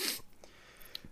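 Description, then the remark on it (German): A single short sneeze bursts out at the start, a sharp breathy blast that fades quickly into near silence with a faint click afterward. “ich, äh, ich äh, Gesundheit.”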